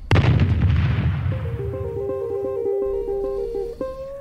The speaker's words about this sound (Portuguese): Nessa canção, podemos ouvir explosões logo no início.